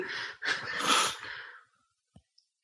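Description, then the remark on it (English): A person blows air through loosely closed lips in a loud, fluttering trill about a second and a half long, imitating a horse's snort, followed by a few faint clicks. “I've only really played it for like two or three sessions, and just come away with it doing that sort of uh, that sort of horse noise afterwards, sort of.”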